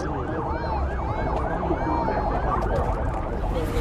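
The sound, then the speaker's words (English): A steady, loud rumble of a long line of cars moving along a road at the border into Armenia, bringing refugees from Karabakh, with several emergency sirens wailing and overlapping on top of the traffic noise throughout. “This is what it sounds like uh, along the border.”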